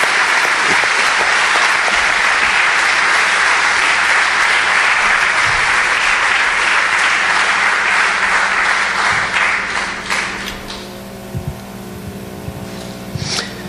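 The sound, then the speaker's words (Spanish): A large church audience claps steadily in a dense, sustained burst of applause for the speaker's father for about ten seconds, then it thins out to scattered claps and fades as a faint tone hums underneath. “Vamos a darle un aplauso a mi papá”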